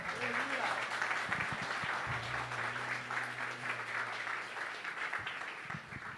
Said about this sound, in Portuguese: Aplauda o Senhor.